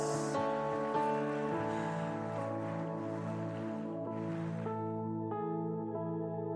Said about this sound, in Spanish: Vamos, dale fuerte el aplauso a nuestro Dios.